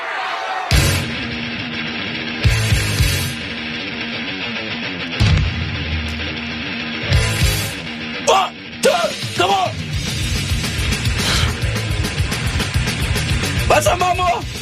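The opening song of a 1990 thrash metal album kicks off loud and dense, with distorted guitars and pounding drums in rapid bursts, punctuated by squealing guitar slides and a shouted vocal edge.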